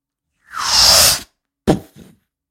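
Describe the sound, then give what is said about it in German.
A voice imitates a muffled bomb exploding in the sand in the background: a long, rushing breathy burst lasting nearly a second, followed by a short sharp puff and a smaller trailing one, with no words spoken. “Weil die Bombe, mach, mach mal die Bombe, warte mal, mach mal eine Bombe, die im Hintergrund im Sand explodiert.”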